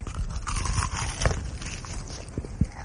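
A crisp crunching bite into a Hardee's fried chicken fillet, with one sharp crackle followed by quieter crumbly chewing crunches and a couple of soft thuds, heard alone without speech.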